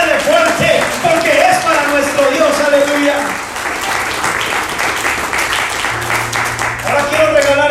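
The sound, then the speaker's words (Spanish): An audience applauds God steadily throughout, a dense, even wash of many hands clapping, with sustained musical tones and a few voices mixed underneath. “Si le vas a aplaudir, aplaudir.”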